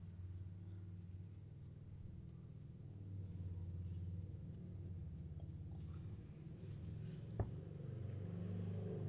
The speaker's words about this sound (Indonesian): ih masih aja motor lewat malam-malam gini